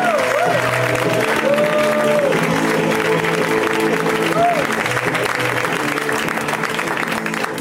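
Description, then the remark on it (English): A crowd claps steadily and loudly for several seconds, with whoops and cheers rising above the dense, continuous applause and voices mingling underneath, as Matt Besser is introduced. “Give it up for Matt.”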